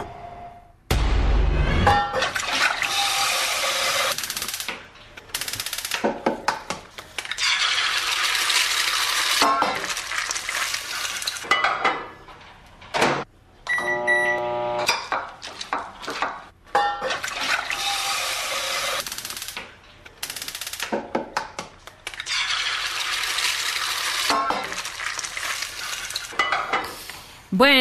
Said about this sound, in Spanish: estamos escuchando sonidos de cocina, ¿no? Como un comedor, una cocina